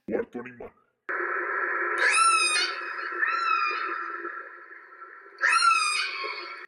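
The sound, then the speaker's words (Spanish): After a couple of brief bursts, a whale call swells into a long, steady tonal moan. It rises twice into higher, whistle-like upsweeps, fairly loud and continuous. “¡La ballena! Claro que sí, los sonidos idénticos de la ballena, además de tener un gran sonido que puede imitar la voz humana,”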